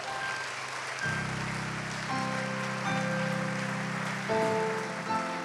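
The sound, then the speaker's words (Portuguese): A church audience applauds at the close of an evening service after a prayer, in a steady, dense wash of clapping, while sustained keyboard chords enter after a second and shift pitch several times beneath it. No one speaks. “Vamos dar um aplauso.”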